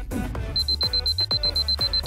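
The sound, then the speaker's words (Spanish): An alarm clock rings with rapid, evenly pulsed high-pitched beeps, loud, repeating steadily over a busy background of low thumps and noise. “Un despertador debe ser ruidoso, no llamativo.”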